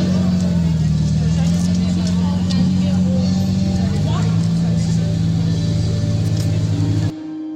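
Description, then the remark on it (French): Race car number 17, giving passenger rides, drones loudly and steadily, its low hum shifting slightly as it moves off, with a murmur of crowd noise in the background before it cuts off abruptly. “Donc le baptême est possible dans la voiture numéro 17, c'est celle qui part euh, à l'instant,”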